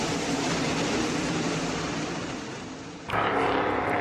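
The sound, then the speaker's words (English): A steady, broad roar of race car engines circling a track during qualifying on a beautiful day in Midvale, Ohio, dipping slightly before surging abruptly louder near the end; no one speaks. “And if you hear some noise in the background, we're sitting up here on a beautiful day in Midvale, Ohio. Uh, there's some qualifying still going on.”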